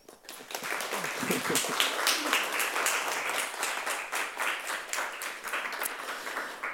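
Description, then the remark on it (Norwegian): An audience at an evening talk breaks into sustained applause for the invited speaker, a language scholar and author of the book 'Norsk banneordbok'. Many hands clap in a dense, steady wash of sound that holds at an even level for several seconds, with no one speaking over it. “Eh, ellers så ønsker jeg dere bare en god fornøyelse og gi en eh, stor applaus”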